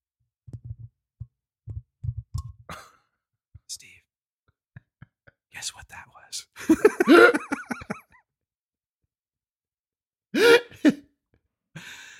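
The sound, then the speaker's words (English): Whispering into a microphone with clicky mouth noises and soft breathy bursts, intimate and quiet with brief pauses between sounds, in an ASMR style. “Oh, it's for, the, for just to whisper in people's ears. Be like this.”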